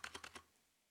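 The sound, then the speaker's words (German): A Shift key on a computer keyboard is pressed four times in quick succession, producing sharp plastic clicks that stop after about half a second, leaving near silence. “Jetzt die Shift.”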